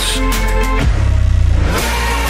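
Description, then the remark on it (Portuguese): A car engine revs loudly, its tone climbing and dropping, with a deep pulsing idle rumble in the middle before it roars up again. “É, aquele carro ainda vai levar a gente muito longe.”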